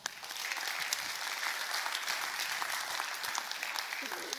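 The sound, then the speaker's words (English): The audience at Peninsula Covenant Church claps steadily for several seconds for the opening of its children's ministry, a dense, even wash of many hands with no single claps standing out, holding at a fairly constant level throughout. “Can we clap for that?”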